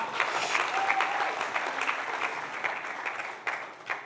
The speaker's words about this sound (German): Kurzen Applaus für die beiden. Vielen Dank euch.